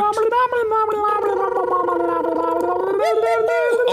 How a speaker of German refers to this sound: vergurgeln werde ich es, Ich werde es vergurgeln. Der Gurgler, äh, richtiger Gurgler.